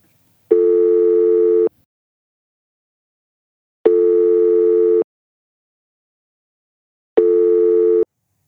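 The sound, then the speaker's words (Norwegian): A telephone ringing tone during a call to Svein Tindberg: three long, steady, buzzy mid-pitched beeps, each just over a second, separated by roughly two-second silences, with no one talking. “Jeg har nummeret hans, så jeg lurer på om vi skal bare spenne i denne stålvaieren og ringe han.”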